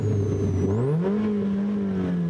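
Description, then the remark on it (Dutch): A loud old car with a fabric roof and no power steering revs its engine, its low droning pitch rising and then holding steady at a higher whine, with no talking over it. “Het ding maakt enorm veel herrie.”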